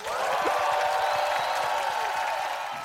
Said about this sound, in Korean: 우리 박수로 보내드리죠.